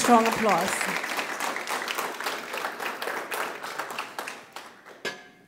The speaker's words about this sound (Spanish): So let's give fuerte aplauso al Señor.